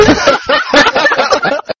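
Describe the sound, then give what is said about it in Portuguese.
A voice comes through a phone call with a thin, band-limited tone and a smeared echo trailing its syllables, sounding almost like chuckling, steady for about two seconds before cutting off. “Por isso que a gente não conseguia falar com ele, ele tá no além, ó o eco.”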